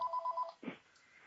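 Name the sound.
telephone ringing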